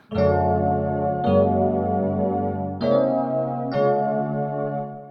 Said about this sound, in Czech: Máš nějaký all-time favorite zvuk, který mu jako inklinuješ nejčastěji? Mám docela tady zvuk jako Yamaha DX7, tak to mám strašně rád, to zní takhle.